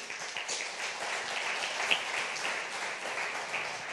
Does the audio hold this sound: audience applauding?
yes